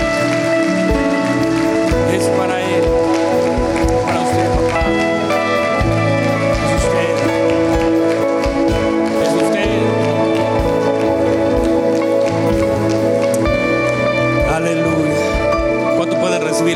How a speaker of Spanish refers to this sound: ¿Qué tal si todos juntos les damos un aplauso fuerte a nuestro Padre? Vamos, si es para Él.